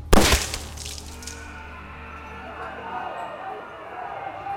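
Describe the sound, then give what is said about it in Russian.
A single sharp pistol shot rings out loudly through loudspeakers across a whole square, its crack spreading into a long reverberant tail, with a low murmuring background underneath. “Разлетевшийся по всей площади из динамиков выстрел вместе с мгновенно возникшим в воздухе и колышущимся на тумане изображением ведьмы уничтожил напряжение и тишину, заменив их паническими воплями и смятением”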